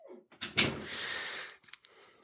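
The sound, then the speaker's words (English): A door is slowly swung shut with a drawn-out scraping creak and a soft thump near the start, followed by a second of muffled rumble and a faint click as it settles. “Closing the door like two frames per second.”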